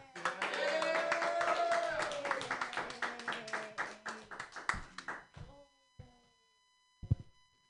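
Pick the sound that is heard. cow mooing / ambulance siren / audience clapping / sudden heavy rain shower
audience clapping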